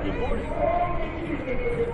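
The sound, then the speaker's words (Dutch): A dense, steady roar of roadside supporters at a cycling race fills the air, a crowd cheering and calling out together at a fairly constant level for the whole stretch, with no single voice standing out. “De supporters zijn al volop aan het ja.”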